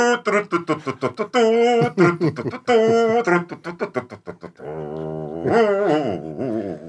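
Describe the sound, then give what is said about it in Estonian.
A run of dog whines and yelps gives way to a low, buzzing growl near the end, all loud, with no talking over it. “trummid põrisevad, koerad lõrisevad, esikoht tuleb siit.”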